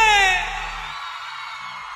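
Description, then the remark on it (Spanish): A crowd of women, with some men joining in, screams and whoops loudly, high shrill voices overlapping in a sustained burst of cheering that stays strong for the full two seconds. “Y hay hombres que no se aguantaron y gritaron ellos porque entendieron lo mejor que griten.”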